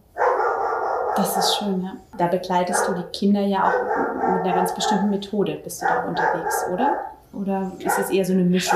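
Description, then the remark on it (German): A dog barks intermittently in the background, a few short yaps here and there, while a person talks steadily over it in the foreground. “Ihr hört gerade im Hintergrund den Hund.”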